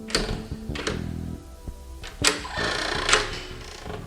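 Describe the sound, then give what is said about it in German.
A key clicks and rattles in a lock, with several sharp metallic clacks and scrapes, then a door latch snaps and the door creaks open, with no voices. “Der erste und zweite Detektiv spürten lähmende Müdigkeit in den Gliedern, Justus musste sich konzentrieren, um das Schlüsselloch zu finden und die Tür zu öffnen.”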